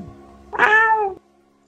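A single clear cat meow, fairly loud, with a slightly falling, drawn-out tone lasting about half a second over a faint low background hum.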